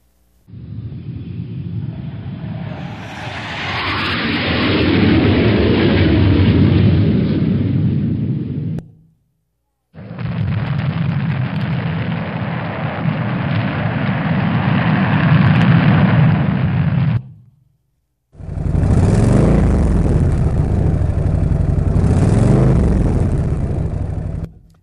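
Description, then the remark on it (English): Three loud bursts of motorcycle engines revving, each roaring steadily for several seconds before cutting off into brief silence. The deep, rumbling exhaust fills each stretch, and no one speaks. “Now, I know a number of you are thinking about power and that with the motorcycles, the spring coming out.”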